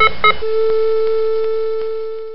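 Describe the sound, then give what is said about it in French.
Two quick clicks, then a steady electronic beep tone that holds for about two seconds and slowly fades. It sounds clear, with no voices. “Vous vous demandez sûrement pourquoi il y a eu un petit bip et un petit message comme ça qui n'a aucun sens.”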